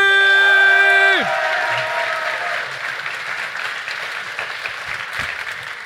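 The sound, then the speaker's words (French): A steady tone slides downward and cuts off, then a large audience bursts into loud, dense applause with cheering for a startup pitch team, measured by a decibel meter, continuing for several seconds and easing slightly toward the end. “Alors, on va faire le décibelomètre pour Infinity Space Providers à 3, 3, 2, 1, du bruit!”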